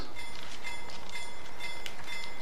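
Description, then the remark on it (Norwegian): A freight train roars past at full speed about two meters from the railway line, a dense continuous rush of rumbling wheels and wagon noise with faint metallic squeals and rhythmic clatter, loud and steady throughout. “når det går et helt godstog forbi deg i full fart, og det er lydene og kreftene der det, det er ganske heftig.”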